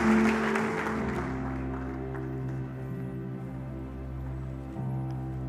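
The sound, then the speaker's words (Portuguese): An audience claps together in a sustained burst of applause for the Lord after a prayer in the name of Jesus Christ, a dense wash of hand claps with a low murmur underneath, tapering slightly toward the end. “Aplauda ao Senhor, aplauda ao Senhor.”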